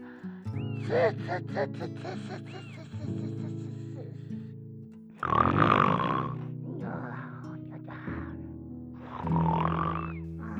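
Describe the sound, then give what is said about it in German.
Zwottel snores loudly in his sleep in three rough, puffing breaths, puffing out his cheeks, pursing his lips and pushing out the air, each a noisy burst about a second long, over soft sustained musical tones that play throughout. “Obwohl Zwottel im Schlaf die Backen aufblies, die Lippen spitzte und den Atem hervorstieß, dass sich die Vorhänge an den Fenstern bauschten, Teller und Schüsseln klirrten”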